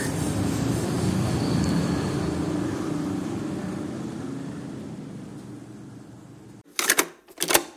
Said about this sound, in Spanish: Sí, este es el estudio de grabación al aire libre de Viajes sin Reservas. Vamos a seguir escuchando a Bangkok.